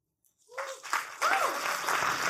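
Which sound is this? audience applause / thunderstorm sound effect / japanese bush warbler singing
audience applause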